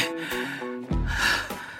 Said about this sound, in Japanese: 耳元で自分の呼吸だけが聞こえていた荒い息遣いのまま木にもたれかかって呼吸を整える